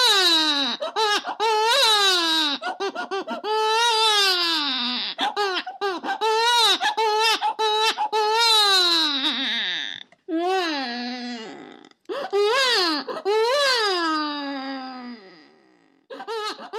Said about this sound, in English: there's actually in the archive also a human uh, recorded, but uh, it's a baby. Um, and probably because language would be too disturbing. And it's just it's just in the category of any other animal in the archive.